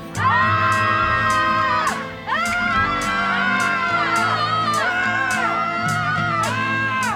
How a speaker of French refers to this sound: Ok, d'accord on reste groupé, vous restez derrière moi. Et à 3, on hurle, d'accord 1, 2, 3.